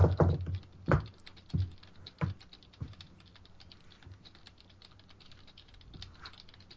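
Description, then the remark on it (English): Typing on a fairly quiet computer keyboard, with irregular key taps that are sharper and louder at first, then settle into softer, steady clicking. Nobody speaks. “actually, I'm going to use another keyboard that doesn't make quite as much sound.”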